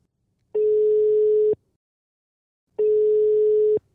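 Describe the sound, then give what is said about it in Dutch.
Two steady, mid-pitched telephone ringing tones heard while placing a call to a colleague, each lasting about a second with a pause between them. The tone is loud, even and alone, with no talking. “Wacht even, nou, ik ga bellen.”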